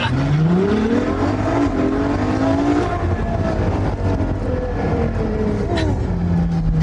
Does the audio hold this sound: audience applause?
no